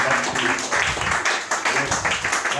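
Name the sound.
audience applause and clapping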